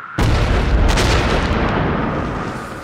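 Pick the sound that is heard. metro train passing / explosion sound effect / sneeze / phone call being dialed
explosion sound effect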